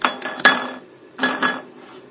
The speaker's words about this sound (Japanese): カップヌードルの、あの蓋に、あらかじめこうやって箸の先で湯切りの穴を作り、そしてカップヌードルの蓋を開け、え中身の火薬を小皿にまず出します。